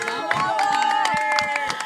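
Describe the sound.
Applause from a group of Venezuelans at a birthday celebration in Mexico: a steady patter of hand claps with cheering and excited voices mixed in, loud and continuous throughout.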